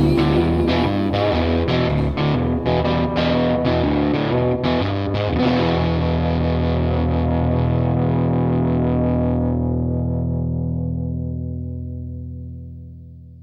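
Gritty, gospel-tinged blues with loud, distorted electric guitar riffs and punchy rhythmic hits that give way to a final sustained chord, ringing out and slowly fading near the end.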